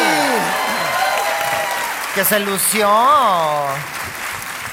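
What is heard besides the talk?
audience applause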